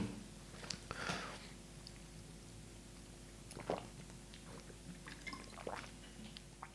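Someone takes a few quiet sips of water, with soft slurping and swallowing sounds spaced a couple of seconds apart over a low steady hum.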